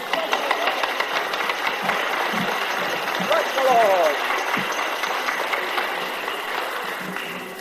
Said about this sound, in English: Give him a clap, come on.